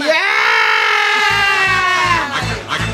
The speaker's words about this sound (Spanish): A ver, yo no entiendo por qué gritan. porque, porque bajamos. Usted porque es espíritu, pero nosotros somos humanos. Como caída libre.